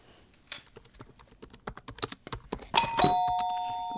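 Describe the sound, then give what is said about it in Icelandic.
Rapid, irregular clacking of keys on a computer keyboard, followed by a bright ringing chime that sustains and slowly fades. No voices. “Þetta er likla borð.”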